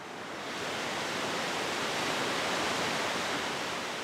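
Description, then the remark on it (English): A steady, powerful roar of river water rushing through the open floodgates of a hydroelectric dam, dense and unbroken like a torrent, holding a constant loud level with no voices. “Then they open the floodgates.”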